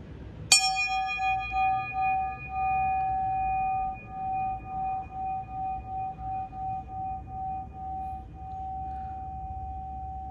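A single bell is struck sharply at its tip, where it is normally struck rather than in the middle, then rings on with a clear, sustained metallic tone that slowly fades and gently pulses for about ten seconds, with no voices.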